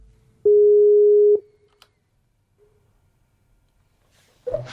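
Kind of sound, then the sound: signal or alarm, telephone call ringing tone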